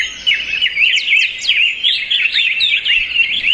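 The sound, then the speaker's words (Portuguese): Lively Atlantic Forest ambience in Brazil filled with continuous birdsong, several birds chirping and trilling at once in quick, overlapping phrases, steady throughout, with no talking. “É uma sinfonia natural muito bem sincronizada, né? Afinal de contas, não dá para falar de Mata Atlântica com um som apenas.”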